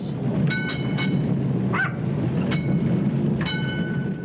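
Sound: tram rattling along rails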